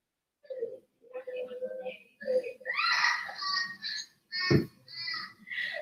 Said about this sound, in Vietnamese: nghe nó khóc mà thấy thương luôn á